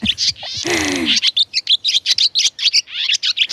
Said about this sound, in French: C'est une hirondelle, ça.